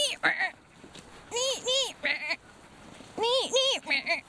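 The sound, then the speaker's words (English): A person's voice imitates a great tit's call, repeating wavering two-note whistled phrases in short bursts with brief pauses, sounding more bleating than tweety. “Ma- should I try and do the sound he was doing?”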